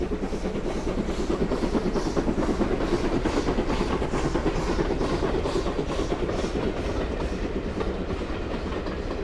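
A train rolls steadily along the rails, its wheels beating out a continuous clickety-clack over a heavy rumble, loud and unbroken throughout, with no voices.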